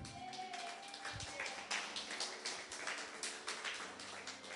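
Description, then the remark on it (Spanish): An audience applauds steadily for the Lord during a church sermon, a dense wash of many hands clapping for several seconds, moderately loud with a few sharper bursts rising above the crowd noise. “Levanta la otra mano y dale un aplauso al Señor.”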